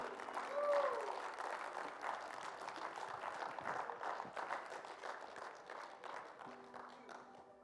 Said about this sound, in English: let's give them all a round of applause and honor them one more time.